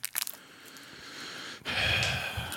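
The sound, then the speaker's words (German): Crinkly rustling of sweets packaging, with a few sharp crackles at first and then a louder, steady burst of crumpling plastic. No one speaks. “Ist, ist, isst du da Süßigkeiten oder was? Machst du den? Ich höre rascheln.”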